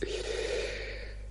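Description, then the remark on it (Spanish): A single breathy yawn with a brief voiced groan at the start that trails off into a soft exhale, heard alone without any talking. “Cuidado que el bostezo se ha notado, como el ordenador de escritorio.”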